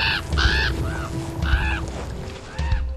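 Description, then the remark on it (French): Harsh, raspy crow caws sound out five or six times in an uneven sequence, fairly loud, over a low rumbling background. “Kim ferma les yeux, la terre trembla, le lampadaire clignota, le corbeau hurla.”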